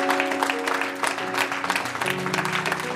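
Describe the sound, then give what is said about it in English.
A church audience claps steadily for the full three seconds as a praise offering to the Lord, a dense, continuous patter of many hands, with sustained organ-like chords droning underneath. “Come on, give the Lord a big hand clap, a big praise offering.”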